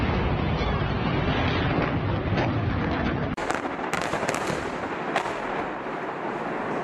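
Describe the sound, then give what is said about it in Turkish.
Dense, continuous rumbling blasts with crackling bursts, loud throughout, from Israel's bombardment of Gaza on the fourth day after Hamas's attack. A sharp shift partway through brings brighter, sharper booms and crackles over a heavy low roar of bombardment explosions. “Hamas'ın cumartesi sabahı İsrail'e yönelik düzenlediği Aksa tufanı saldırısının dördüncü gününe girilirken de bölgeden bombardıman sesleri yükseldi.”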